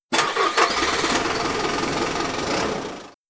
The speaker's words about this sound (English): He tapped on the top of the car and stepped back as I ignited the engine.